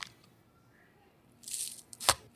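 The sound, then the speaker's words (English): A knife chops hard through scallions on a cutting board with a vertical chopping motion: a brief crunchy rasp followed by one sharp, loud chop, with quiet room tone around it and no talking. “This is that chopping. This is the incorrect way to slice scallions.”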